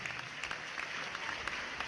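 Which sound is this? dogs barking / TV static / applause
applause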